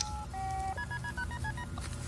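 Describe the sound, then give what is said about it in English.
Keypad dialing tones on a SEAL Magnaphone MX 2020 secure satellite phone: a longer beep, then a quick run of about eight short dual-tone beeps, over a steady low rumbling background. “This is a SEAL Magnaphone. It's uh, an MX 2020. It's a secure satellite uplink.”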